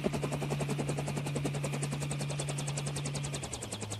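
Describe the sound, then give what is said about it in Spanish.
A steady, rapid chopping of helicopter rotor blades, loud, thumping evenly throughout with a low engine hum beneath that drops slightly in pitch near the end. No one speaks. “Personas que, con buena, mala o regular intención, te chupan, chupan, chupan como un helicóptero rondando por tu mente. ¿Puedes escuchar su sonido?”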